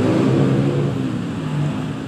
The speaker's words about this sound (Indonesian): Jalanan ini masih sama. Sama seperti yang dulu. Masih ramai. Seperti tidak ada beban di antaranya. Suara motor pun masih seperti itu. Tak ada habisnya.